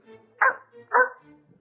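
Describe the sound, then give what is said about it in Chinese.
Two sharp, high-pitched yaps from a small dog, spaced about half a second apart, with faint whiny tones trailing between and after them. “这一次是狗狗专辑，小狗”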